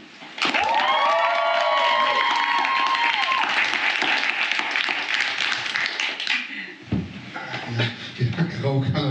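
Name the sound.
audience applause and cheering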